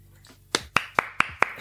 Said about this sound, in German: Nice Leistung. Oh, Einmal eine Runde Applaus bitte.